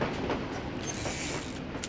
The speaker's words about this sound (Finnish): Tie seuraa rautatien pengertä. Olemme Berliinissä aivan huomaamattamme. Ohitamme Stadbahnjunia matkallamme kohti keskustaa.